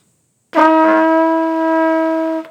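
A single sustained brass note, played on a valved horn with a valve held down while aiming for an F, starts with a slightly breathy attack and holds steady and fairly loud for about two seconds before stopping cleanly. No talking.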